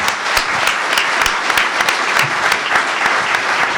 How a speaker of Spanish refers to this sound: Entonces, este aplauso es un abrazo de los compañeros y de los lectores de Página 12 al genio de Rep.